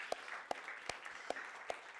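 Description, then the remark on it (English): A church audience breaks into applause, giving God a round of applause for 13 baptisms so far in 2021, a steady wash of many hands clapping with a few sharper claps standing out at an even, regular pace. No one speaks. “Let's give God a round of applause for that.”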